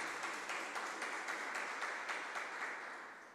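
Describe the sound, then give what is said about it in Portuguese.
An audience applauding the Lord together, a dense, steady wash of many hands clapping with faint rhythmic pulses, holding at an even level before easing slightly at the end. No one speaks. “Vamos aplaudir ao Senhor, tem sede de Deus.”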